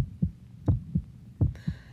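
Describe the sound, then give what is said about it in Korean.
Deep, thudding heartbeat in a steady lub-dub rhythm, heavy, with about three beats pounding in a row, for a nervous heart while waiting seated in a bank's reception room; a faint high-pitched tone creeps in near the end. “그리고 잠시 기다리라는 말을 듣고 자리에 앉아서 두근거리는 마음을 누르고 있었는데요.”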